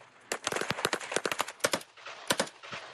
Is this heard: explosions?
yes